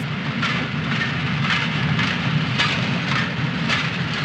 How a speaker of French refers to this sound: Un train arrive à Bellegarde à 7h30 du matin avec 400 soldats de la Wehrmacht.